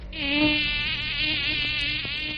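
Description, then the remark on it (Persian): A high, thin mosquito whine drones steadily, its pitch wavering slightly as it hovers, with no voices present. The mosquito is in a bedroom and lands on a box of chewing gum. “پشم میاد صاف میشینه رو جعبه آدامسام پشه اتاقم خیلی وقت خبری ازش نبود خب پشه جان چی شد بعد عمری خبری از ما گرفتی”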